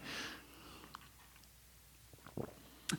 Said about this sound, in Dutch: Ik moet even een slokje water ja, pakken